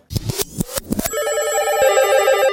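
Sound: telephone ringing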